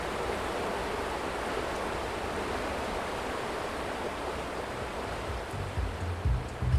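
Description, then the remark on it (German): A steady, continuous rush of the flowing Brut river fills the scene, broad and even throughout, with a few low rumbling bumps near the end and no voices. “Menschen grillen, waschen ihr Auto und baden in den Fluten.”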